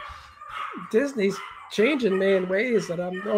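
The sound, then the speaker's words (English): Dogs yip and whine excitedly in the background, their high, wavering cries overlapping a person speaking in the foreground for a few seconds. “Sorry about the dogs. They they could hear I'm doing a podcast, so they immediately start screaming.”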